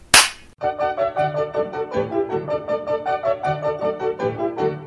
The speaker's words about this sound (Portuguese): Com esse tapa na cara que eu começo esse sensacional Inquisição Pagalática.